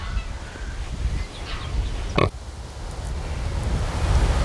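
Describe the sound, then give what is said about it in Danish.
A woolly pig grunts and snuffles in low, rough bursts, with a sharper squeal-like burst midway, over steady noisy outdoor background. “de der uldgrise, de har sådan striber, ligesom vildsvin, lige når de bliver født.”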